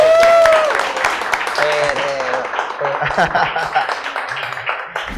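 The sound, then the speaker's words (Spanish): A crowd applauds loudly and steadily for about five seconds, with cheering voices and a brief whistle near the start, fading a little toward the end. “Aplauso, pues. aplausos.”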